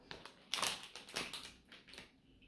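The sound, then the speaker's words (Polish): Crunching of Picnaki crackers, small triangles made of rice, quinoa or groats, being bitten and chewed from a packet: four or five crisp, brittle bursts at an irregular pace, fairly quiet, with no talking. “Chrupią, są naprawdę pyszne.”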